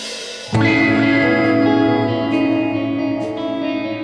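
A psychedelic electronic band's song swells in after half a second of quiet: loud, sustained droning chords soaked in reverb and chorus effects, steady throughout with no voices.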